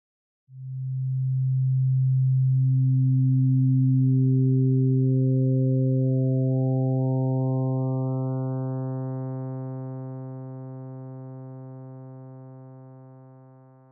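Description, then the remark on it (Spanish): A low, steady pure tone is joined one by one by higher harmonic tones, each new overtone softer than the last, while the whole stacked sound gradually fades. “Y cada vez que suena un armónico, suena más suave ya que la amplitud de la vibración va disminuyendo hasta que se disipa de nuevo en el silencio.”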